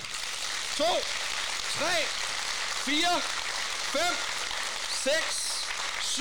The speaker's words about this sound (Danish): Og så får I lov til at klappe.